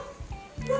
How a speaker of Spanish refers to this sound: oigan, al fondo se puede escuchar a mi perrita hermosa ladrando.